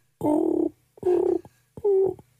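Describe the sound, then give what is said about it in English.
A person imitates a pigeon with three throaty, warbling coos in a steady rhythm, each about half a second long, with no other sounds around. “Sorry, I can do my pigeon noise.”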